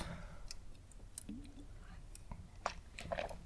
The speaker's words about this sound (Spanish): pausa para trago de agua.